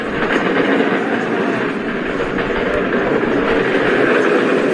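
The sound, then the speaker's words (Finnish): Heavy wheeled postal carts roll past, making a loud, steady rattling rumble that continues unbroken for the whole stretch, with no voices. “Täällä menee jonkin verran postin kärryä, että voi kuulua jonkun verran meteliä”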